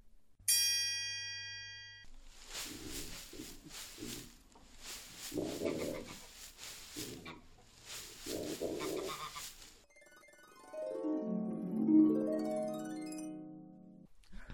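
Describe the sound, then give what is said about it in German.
A mini pig (Sus scrofa domesticus) hiding in straw rustles: three or four loud bursts of dry crackling and shuffling, with brief pauses between. A chime comes before it and a melodic jingle follows. “Bei Frage 2 handelt es sich um ein Minischwein, welches sich im Stroh versteckt.”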